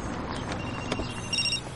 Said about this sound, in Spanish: El teléfono suena en el maletero del coche.